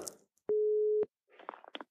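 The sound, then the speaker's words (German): A single ringback tone on a phone line: one steady, loud, low-pitched hum lasting about half a second, followed by brief scratchy clicks and rustling. “Hört mal, da klingelt's schon.”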